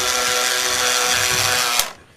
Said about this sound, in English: I got my cool model helicopter flying around the studio right now.